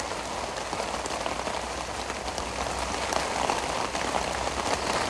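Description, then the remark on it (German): Steady, dense rain drums on a tent surface, a constant patter of countless drops with no pauses, filling the whole stretch with no voices. “Ich bin also jetzt in meinem Zelt, wie man hört.”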